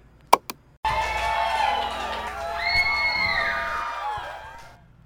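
Two sharp clicks, then a woman's high-pitched screaming that rises and wavers for about four seconds, layered with other shrieking voices, fairly loud before fading out, played back from a recording.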